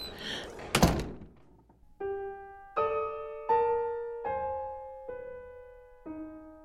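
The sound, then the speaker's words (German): A door shuts with a single heavy thunk, followed by a run of six ringing electronic chime tones stepping through a short melody, with no talking. “Das Wichtigste ist, dass die Tür geschlossen wird, sonst weiß man nicht, wer hereinkommt.”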